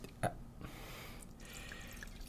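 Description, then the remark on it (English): Wine pours into glasses with a soft, steady trickle, opening with a brief clink at the start; the sound is quiet, in a spacious kitchen. “Nick pours us each a glass of wine in his spacious kitchen.”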